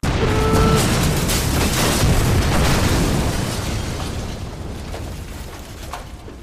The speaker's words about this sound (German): Und der Handwerker wurde durch die Explosion 300 Meter weiter geschleudert.